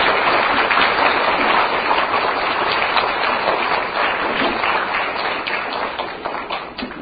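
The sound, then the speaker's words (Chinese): Sustained, dense applause from a large audience welcoming station director Lu Junhong to give a talk, steady and loud throughout with countless overlapping claps, easing slightly toward the end with a few sharper individual claps standing out. “我请我们在座的所有朋友们，用最热烈的掌声，请出我们尊敬的卢军红台长来给大家做开示。”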